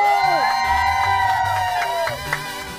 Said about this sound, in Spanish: ¡El aplauso!